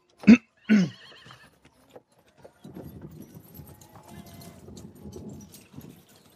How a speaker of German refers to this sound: Und er knallt einmal mit so einer Kutscherpeitsche neben dem Gespann so, und trottet dann mit seinem Kaltblütergespann, macht er sich auf den Rückweg und versucht sich dann in den Fuhrverkehr einzuschlängeln, der dort auf der Hauptstraße ist.